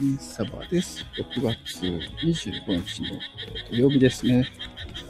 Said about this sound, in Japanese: 公園で収録してます。カエルが鳴いてるのかなこの。ケケケケケケ。ケケケケケケケケってますね。